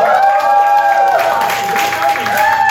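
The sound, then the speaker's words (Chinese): A crowd at a music performance erupts in loud, sustained cheering and high-pitched screams for an arriving performer, with scattered applause woven in, holding steady at full volume for a few seconds. “好了，给他一个尖叫声好不好？”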